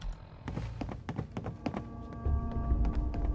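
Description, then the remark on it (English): A series of slow, uneven footsteps, about ten dull thuds and taps over a few seconds, with a low steady hum and rumble coming in partway through. No one speaks. “Gosh, all the creepy footsteps.”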